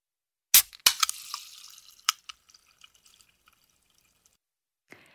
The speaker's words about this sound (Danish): Det var en kort lyd, men, øh, men alligevel kunne man fornemme øh, den her tilfredsstillelse, der er over lyden af en dåseøl, der bliver åbnet. Især hvis det er den første på dagen, og den er kold, og at den kan nydes i solen.